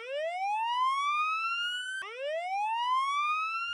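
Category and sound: signal or alarm, alarm going off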